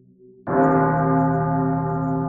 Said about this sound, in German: Das dumpfe Läuten einer Kirchenglocke in der Ferne durchbricht die unnatürliche Stille auf dem Friedhof.